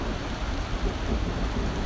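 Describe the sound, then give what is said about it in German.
Heavy rain pours down in a dense, unbroken hiss, forming a small stream on the ground, with a deep rumble of thunder rolling underneath; the sound stays steady and loud throughout, with no voices. “Das wird schon um dich herum entsteht langsam ein kleiner Bach.”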